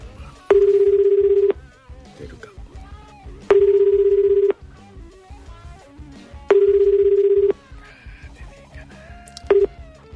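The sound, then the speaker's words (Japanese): A phone line ringing on an unannounced outgoing call from a Radio Nikkei show to the representative of the company Kikyoya: steady buzzing tones about a second long, repeating every three seconds, three full rings and a fourth cut short, over faint background noise. “だからあの電話つながるかどうか分かりませんけども、えー、電話かけてみたいと思います”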